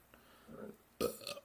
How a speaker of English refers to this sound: Um, look at a burp coming. I know it.